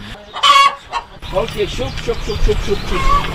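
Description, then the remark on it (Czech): Mr Pavel's hens, which he let researchers study for a project, cluck in a chicken run: a loud squawk comes first, then a steady run of short clucks repeating in quick rhythm against a low outdoor rumble. “Pan Pavel, který ke svým slepicím výzkumníky pustil, vysvětluje, proč se do projektu zapojil.”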